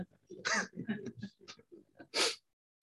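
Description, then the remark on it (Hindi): Two sharp, explosive sneezes, the first near the start and the second toward the end, with brief muffled voices and breathy sounds in between. “God bless you मन हो तो खा लेना”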